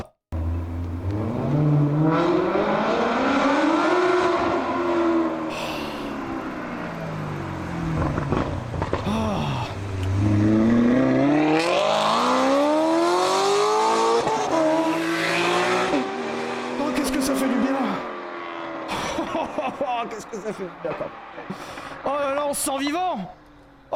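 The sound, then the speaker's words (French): A Maserati Quattroporte V8 engine revving loudly, its throaty pitch climbing and falling in repeated sweeps with crackling pops between the surges, over about twenty seconds. “Attention, ce soir, c'est V8 et prout-prout, hein.”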